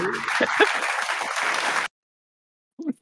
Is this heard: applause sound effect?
yes